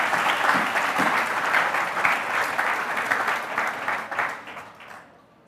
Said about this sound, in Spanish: Damos un fuerte aplauso al Señor en esta mañana.